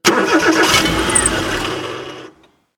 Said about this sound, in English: Beeks gets into the driver's seat and tries to start the engine.